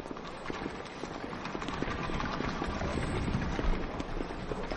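Horse hooves clip-clop steadily across the hard courtyard of the Imperial Palace as a pair of lancers escorts an inspector, a dense run of sharp clattering steps against a constant background wash, with no voices.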